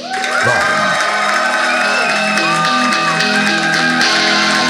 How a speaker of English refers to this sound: And now, give a warm round of applause to my friend and yours, Adam Sank.